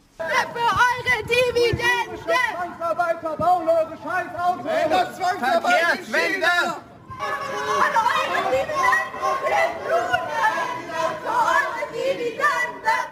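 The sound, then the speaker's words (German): Many voices of protesters at a Volkswagen annual shareholders' meeting shout and talk over one another in a loud, agitated crowd commotion, with a brief lull around the middle before the overlapping shouting surges back. “Es gibt noch einen weiteren Punkt, den Sie kritisieren und wegen dem es bei der letzten Hauptversammlung auch ziemlich wilde Proteste gab.”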